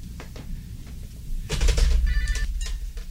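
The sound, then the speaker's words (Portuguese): An old-fashioned telephone bell rings for a call from a hospital, a loud rattling burst with a metallic, shimmering tone over a low rumble, with no talking. “O telefone, Frederico, atenda.”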